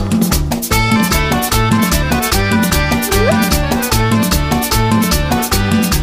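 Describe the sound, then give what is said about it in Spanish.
A lively accordion melody plays over a steady, bouncing bass line and crisp rhythmic percussion, loud and continuous, with no voices. “Y ahora viene el acordeón.”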